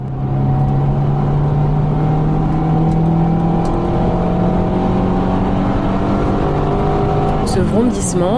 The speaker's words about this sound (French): c'est celui du moteur de la dernière voiture Lada Vesta sur le marché.